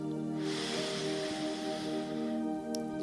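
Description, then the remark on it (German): A single long, deep breath drawn in through the nose during a guided breathing exercise, a soft airy rush lasting about two seconds over a steady, sustained musical drone, with no talking. “Lass uns nochmal atmen. Wir atmen durch die Nase ein”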